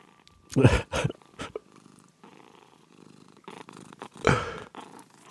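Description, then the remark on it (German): A cat in a shop purrs in a steady, rumbling rhythm, with a few louder bursts as it breathes in and out, heard on its own without talking. “Was ist denn das? Sind Katzen im Laden. Oh, Katzen.”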